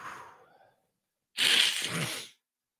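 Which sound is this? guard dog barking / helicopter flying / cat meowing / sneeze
sneeze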